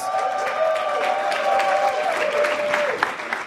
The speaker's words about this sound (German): Das ist der Franz Club. Vielen Dank. Applaus.